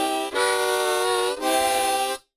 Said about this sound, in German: Mundharmonika.